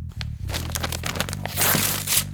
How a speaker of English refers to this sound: I'm now going to rip this piece of paper up that says that I am the proper owner of the facility.